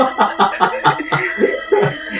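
A rapid, sputtering coughing and choking fit at the mayor's office as he is about to start speaking, about eight harsh bursts in quick succession, fairly loud, with strained, choking gasps between them and no talking.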